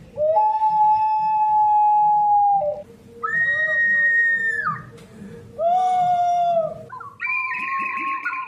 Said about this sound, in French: Il ne s'agit pas d'oiseaux, mais de la langue sifflée des bergers qui est un moyen de communication utilisé euh, dans les montagnes, souvent